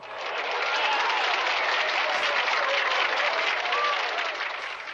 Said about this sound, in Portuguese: Viva o Theo, parabéns. Viva o Theo. Deixa botar um aplauso em